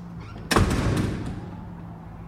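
A math classroom door swings open with a single solid thud that rings out and fades over about a second, with a faint steady hum underneath and no talking, as a short blond boy walks into the class.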